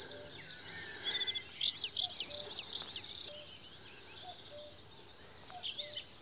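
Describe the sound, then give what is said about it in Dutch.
A bird sings in the Tetjehorn nature area, opening with a quick run of high, repeated thin notes before moving into a varied, warbling phrase, with more birds chirping steadily in the background. “Je begint altijd met ti, ti, ti, ti, ti, ti, ti, ti, ti, ti. En dan gaat hij verder.”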